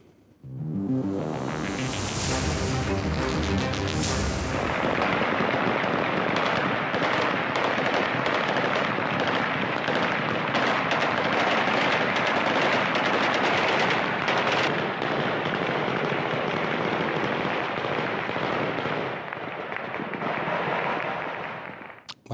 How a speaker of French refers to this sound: des tirs en l'air dans les rues de Kaboul, une manière pour les talibans de célébrer le départ des derniers soldats américains.